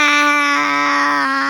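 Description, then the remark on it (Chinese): A child's voice imitates a Taipei tree frog with one long, loud, nasal "gwaa" call held steady at a high pitch for over a second, with no other sounds around it. “那你会不会学它叫？”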